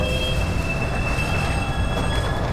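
A commuter train carriage rolls steadily along the rails with a constant low rumble, a thin high whine of wheels holding throughout, heard from inside at an even level.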